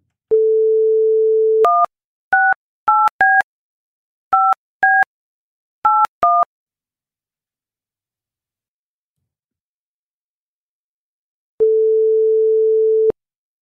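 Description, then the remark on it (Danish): A steady telephone dial tone gives way to a quick series of keypad beeps, then a pause and a single long ringing tone on the line as a call is placed to a schoolteacher. Clear, with no voices. “Tine Marie Nielsen ringer vi til nu.”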